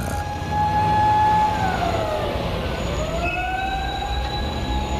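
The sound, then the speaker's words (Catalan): An emergency vehicle siren wails over a steady rumble of traffic, its tone sliding down and then climbing again. Fairly loud and continuous, with no voices. “Algú ha comès una infracció, el sentiu de fons?”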